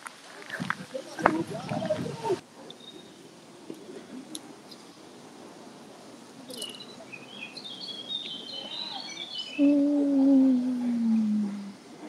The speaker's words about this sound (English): Okay, now I heard uh, some birds from my side.